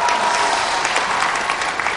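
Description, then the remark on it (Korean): An audience claps for Induk University, which lent its lecture hall as the broadcast venue; a dense wash of many hands with no individual claps standing out, loud and even for the whole two seconds with no voices on top. “인덕대학교에도 여러분 박수 한번 보내주시기 바랍니다.”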